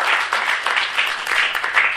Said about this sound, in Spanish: Perfecto. Le damos un aplauso aquí a nuestro compañero.